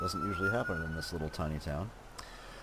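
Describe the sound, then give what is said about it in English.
A siren wails steadily in the background, a thin sustained tone held under a man's speech for most of the moment before fading out as he finishes talking. “Sorry about the siren in the background there.”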